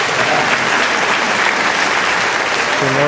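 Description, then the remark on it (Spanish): An audience applauds in a steady, dense wash of clapping that fills the whole moment, with a voice beginning to speak just as it ends. “Así que demos otro aplauso al Señor por Omar.”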